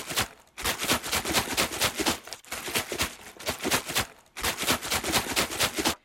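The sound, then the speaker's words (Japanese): A plastic PET bottle, recorded and sent in by a listener for a radio jingle project, is shaken hard in quick rhythmic bursts, a crisp swishing rattle coming in three loud runs separated by brief pauses, with no voices. “ペットボトルのシャカシャカ音ね”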